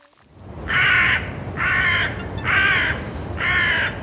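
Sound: crow cawing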